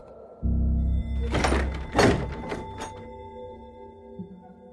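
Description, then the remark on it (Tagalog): A heavy door is suddenly shut, thudding with a deep low boom, followed by a burst of rattling, clattering impacts as it settles, then a lingering low hum fading out. “Bigla kong isinara ang pinto.”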